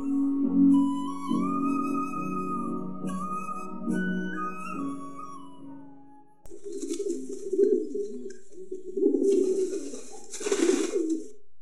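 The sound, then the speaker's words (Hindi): After a few seconds of steady, high tonal sound, a flock of pigeons coos in a low, burbling chorus at a crossroads where people scatter grain for them in the morning, with overlapping calls fairly loud. No one speaks. “कबूतर का झुंड चौराहे पर आता और दिन भर पाप किए हुए मनुष्य द्वारा सुबह सुबह कबूतर को दाना डालने के लिए संत बन जाने वाले अपने गुनाहों को माफ करने के लिए कबूतर के लिए दाना डालते कबूतर दाना चुगते और उड़ जाते”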